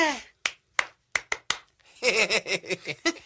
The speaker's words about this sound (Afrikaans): Kom ons speel Simon sê. Sê wat jy wil hê ek moet doen. Eh, uh, Simon sê, klap jou hande.